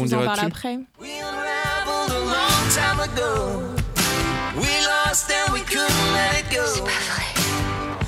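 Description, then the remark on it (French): A short music track plays loudly and continuously, with a full band sound and a wavering melodic vocal line, after a brief pause near the start. “Je te lance une petite piste musicale”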